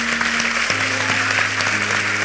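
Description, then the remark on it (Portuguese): A church audience applauds steadily in praise of God, a dense, even wash of clapping throughout, with sustained low keyboard notes underneath that shift pitch a few times. “Pode aplaudir a Ele.”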